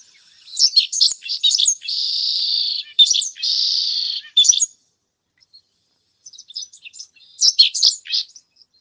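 bird, pipit (cachirla) singing loudly

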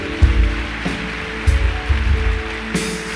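crowd, audience applause

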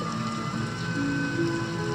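nature, rain falling

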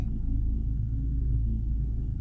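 nature, thunder rumbling

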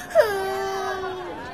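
human body sound, person crying

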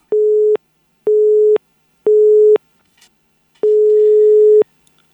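signal or alarm, telephone busy tone

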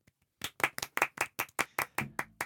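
crowd, slow clapping

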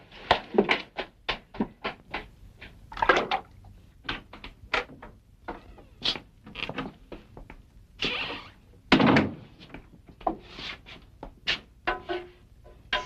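household object, door being opened

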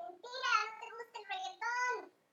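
animal, small dog barking

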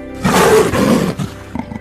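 animal, lion roaring

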